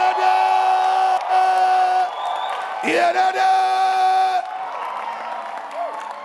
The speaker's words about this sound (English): Are you clapping your hands for Jesus? Lift up your voice and give the Lord a shout of victory.